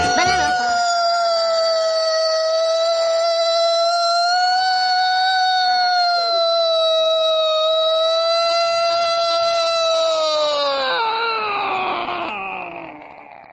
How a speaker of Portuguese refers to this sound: É a Sirene de Olímpia, besta!